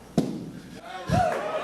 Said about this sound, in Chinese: 三十号在德州工厂，特斯拉不锈钢车身皮卡 Cybertruck 终于对外亮相。车身充满直线感，几乎没有曲线，最大特色就是非常坚固。现场人员用力砸玻璃也不会破。